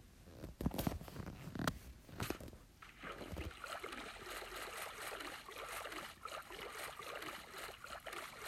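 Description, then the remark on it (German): A few sharp clicks and thumps, then a boat in a video game moving quickly over water, with continuous splashing and rhythmic paddle-like strokes, moderately loud, with no voices. “kommt ein Boot. Geht es einfach schnell auf dem Wasser.”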